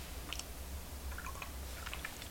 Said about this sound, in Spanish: el café de lunes me saca, me saca de la modorra y de alguna manera de la pausa informativa de fin de semana y me devuelve a la realidad periodística de este programa, así que me voy a dar un sorbito largo.